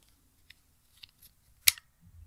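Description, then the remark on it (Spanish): A braille stylus clicks sharply into the corner of a Versamini braille slate, one bright crisp snap after a few faint taps, clear with no talking. “Y ahí escucharon porque él cae justo en esa esquinita, se convierte en la esquina de la regleta.”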